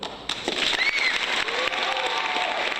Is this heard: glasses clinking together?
no